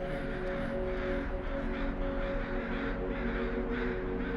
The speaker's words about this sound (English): The cawing of crows reverberated out of the hollows and echoed across the lake. Something disturbed them, and they took flight from the trees in flocks.